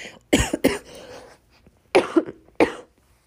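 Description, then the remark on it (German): A loud coughing fit: two quick bursts of harsh coughs, a short pause, then two more clustered hacking coughs, with no speech. “Herrlich, dass ich jetzt einen Hustenanfall kriege.”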